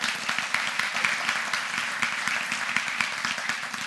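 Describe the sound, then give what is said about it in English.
An audience claps steadily for several seconds to welcome the speaker's guest, a dense patter of many hands forming a continuous, fairly loud wash of applause with no voices standing out. “Would you give Mary Kate a big hand?”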